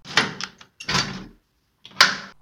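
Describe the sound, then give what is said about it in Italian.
A house door shuts, followed by a sequence of sharp metallic clicks and rattles as the lock is turned twice and a chain is slid into place, with short pauses between bursts. “si infila alla svelta in casa e chiude la porta con due mandate e la catena.”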